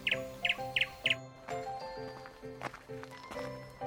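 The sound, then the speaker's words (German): A small bird chirps in quick, bright bursts on a sunny early-spring morning, four sharp repeated tweets at first, then more scattered calls over a tonal, musical background. “Wen haben wir denn da? Einen kleinen Vogel.”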